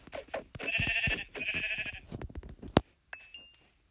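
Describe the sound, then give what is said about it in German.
Two drawn-out, wavering bleats from a group of three sheep follow one another closely, loud, with a sharp click after them and faint high tones trailing off at the end. “Und hier sind drei Schafe.”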